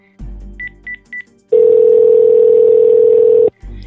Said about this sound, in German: aber zunächst griff er zum vierten Mal an diesem Tag zum Telefon und tippte auf die Kurzwahltaste.